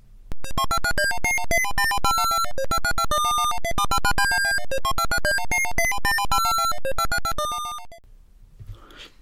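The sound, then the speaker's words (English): Bright, fast chiptune melody of the high score name entry music from the arcade game Mr. Do, with rapid staccato notes in a bouncy, looping pattern, played loud for about eight seconds before cutting off. “Super fun little game, and it wins for the best high score name entry music.”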